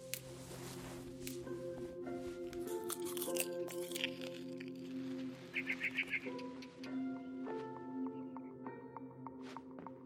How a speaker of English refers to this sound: I kept eating and eating. I ate a lot of things that night.